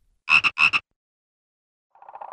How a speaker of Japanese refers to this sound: それはぬるぬるとした青い塊であった何百万というカエルが国中を飛び回りあらゆる人を極めて嫌な気分にさせた